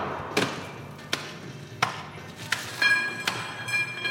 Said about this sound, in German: Das Stadion am Pulverturm in Straubing ist zurzeit eine Baustelle. Statt heißen Fights ums Halbfinale wird dort das Eis zerhackt.